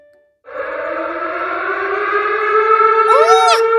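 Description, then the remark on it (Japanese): A civil defense siren sounds after a brief quiet, holding a loud, steady, droning wail that grows slightly stronger, with a wavering, swooping tone rising over it near the end. “にゃんだにゃんだこのサイレンはここれはまさかどうしたにゃん何か知っているのかにゃんこれはモンスター襲来の大規模イベントだわ”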